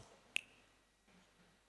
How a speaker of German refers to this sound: ja, das ist, ich schnipp's einmal mit dem Finger und dann funktioniert die Sache.